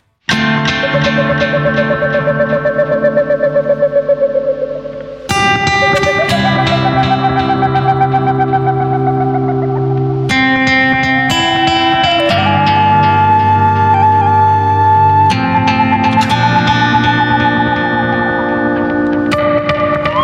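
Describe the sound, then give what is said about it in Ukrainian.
A loud recorded music track plays continuously, with dense, effects-heavy distorted chords and a steady low end that shift roughly every five seconds, with no talking over it. “Добре, пропоную ще послухати один з ваших треків.”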